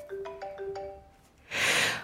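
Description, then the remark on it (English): A phone ringtone for an incoming call from someone calling back plays a quick melodic phrase of bright electronic notes for about a second, then stops and a loud, breathy rush of noise follows. No one speaks. “She's calling back.”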